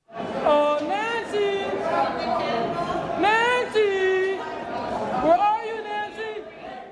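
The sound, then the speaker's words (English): A mob at the US Capitol on January 6th yelling and shouting over one another, loud, with raised, strained cries rising above a constant rumble of agitated chatter for several seconds. “We heard the mob screaming for Nancy Pelosi”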